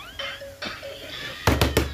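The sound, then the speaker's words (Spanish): A fist pounds heavily on a door, four loud thuds in quick succession, following a stretch of faint tonal background sound; someone has been pounding for a while, demanding the door be opened. “abre la puerta, hombre por estar oyendo esas babosadas que no me escucha, hombre. Tengo rato de estar porraciando la puerta.”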